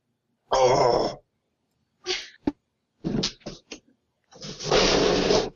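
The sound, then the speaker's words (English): A person retches and gags after downing a glass of a very sweet drink: a loud, strained heave, then a few short choking gasps, and a final long, rough retching sound, with brief silences between. “We had to get some vomiting in there.”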